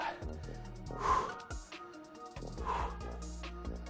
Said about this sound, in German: Schön rechts, links rechts, links. Super. Schnaufen dazu.